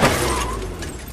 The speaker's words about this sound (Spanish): Cuando ve a Silva retrocede y lo choca.